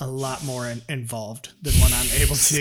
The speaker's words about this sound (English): your your dog is having like an, a sneeze attack. I, could, I, I held my laugh back for two of them, and then she let that third, she let that third one out, and it got me.